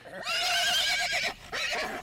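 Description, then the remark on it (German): Galgano's horse, blinded by a sudden strong light, shies and rears, giving a loud whinny with a shaky, wavering pitch, breaks off briefly, then neighs again in a shorter second burst. “Galganos Pferd scheute und bäumte sich auf, und Galgano fiel in hohem Bogen auf den harten Boden.”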